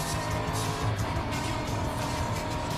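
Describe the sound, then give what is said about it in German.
A steady, loud car engine drone from a video game, the car driven in first-person view, holding a constant revving hum with broad road noise throughout, no voices. “Ich will das Auto aber auch in Ego fahren mal.”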